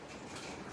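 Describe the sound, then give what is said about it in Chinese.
Heavy rain in Shenzhen pelts a windowsill in a dense, steady hiss of rapid patters, loud and unbroken for the short moment, with no voices. “外面下雨了，还好大，一直在我窗台上啪啪响。”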